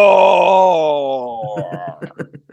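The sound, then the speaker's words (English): A man imitates a roar with a long, loud, drawn-out vocal growl that slides downward in pitch, then breaks into a few short, choppy laughing bursts. “let's hear your your tropical roar. Roar.”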